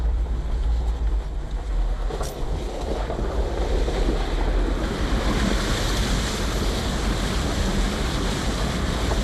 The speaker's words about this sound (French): là, ça y est On passe la rivière. Voilà, et là, à chaque fois, on traverse la rivière, et eh ben, à chaque fois, on traverse euh, la frontière entre deux communes.